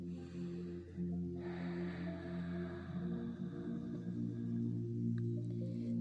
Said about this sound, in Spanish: Respiro profundo. Una respiración más.